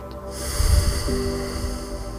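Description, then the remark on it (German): A single deep breath drawn in through the nose into the belly, so the abdominal wall bulges forward, clearly audible, with a slightly snorting rush of air and no talking. “Dann atmet ihr im Wechsel einmal tief in die Brust ein, dass sich das Brustbein richtig nach vorne oben hebt und wieder senkt und dann mit dem nächsten Atemzug Richtung Bauch atmen, dass sich die Bauchdecke nach vorne wölbt und wieder senkt.”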